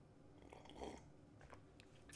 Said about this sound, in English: And I specifically sipped there so you could hear it and gulp along with me.